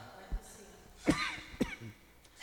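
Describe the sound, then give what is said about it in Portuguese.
Two short, harsh coughs in quick succession from a person with a lingering cough, the first slightly longer and raspier, against a quiet background with no talking. “Eu tossi, tá?”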